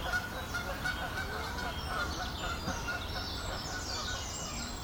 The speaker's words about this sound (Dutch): nu hebben we een stel ganzen dat heel veel lawaai gaat maken. Goeie, dit, is jullie, eh, jullie nieuwe wachters. Dus, eh, ja, de Romeinen hadden al ganzen om hun eh, stadsmuren te beschermen.